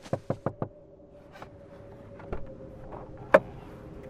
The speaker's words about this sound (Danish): Og så banker det på bilruden.